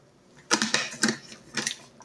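Someone takes a sip of water: four short, crackly bursts, like a plastic bottle being squeezed and handled, over a quiet background with no talking.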